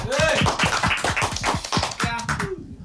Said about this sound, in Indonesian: Jadi tepuk tangan lagi